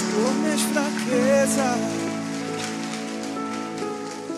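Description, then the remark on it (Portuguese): Loud, steady applause for Jesus from an audience, a dense crackle of many clapping hands, with sustained musical tones and a voice rising over it. “Uma salva de palmas para Jesus, bem forte.”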